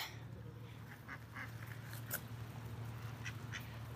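Several ducks quack in short, scattered bursts, soft, over a steady low background hum as they are fed with food thrown to them; no one speaks.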